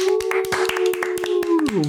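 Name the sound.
hand clapping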